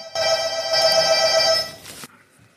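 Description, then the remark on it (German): A doorbell rings in one bright, buzzing electronic tone that holds steady and loud for about two seconds before cutting off abruptly, with no voices heard. “Es hat geklingelt an der Tür.”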